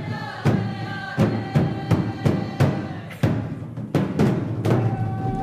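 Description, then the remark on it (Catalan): Steady, evenly spaced drumbeats, about one every two-thirds of a second, under sustained chanting voices in Native American rain dance music, moderately loud. “potser la cerimònia més popular és la coneguda com la, la dansa de la pluja, que és una tradició dels indígenes nord-americans.”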